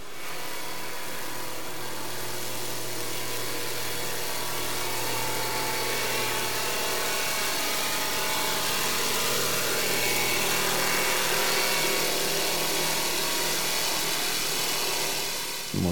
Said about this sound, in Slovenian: možemo čuti koliko je to glasno i koliko je to intenzivno i za nas ljude iritantno. Tako da eto, imamo tu jednu snimku zvuka kada je jedan brod prošao malo bliže e, hidrofonu.